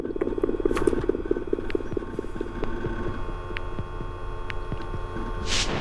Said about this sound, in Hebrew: מזמן לא שמעתי מחשב כל כך מתאמץ.